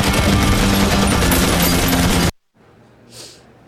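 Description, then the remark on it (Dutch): A loud, dense burst of rapid automatic gunfire from a trailer for a 2008 film about the Red Army Faction roars for about two seconds, then cuts off abruptly into near-silence, broken only by a faint, brief hiss. “Geweerschoten, schurrende auto's en een Vietnam-demonstratie.”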